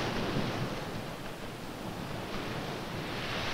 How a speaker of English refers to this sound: But why do waves break as they approach the shore? This is a typical sandy beach at high tide.